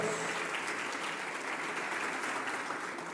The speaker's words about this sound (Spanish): Dale una ofrenda de palmas al Señor. Gloria a Dios.